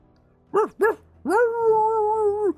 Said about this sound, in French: des chiens qui commencent à japper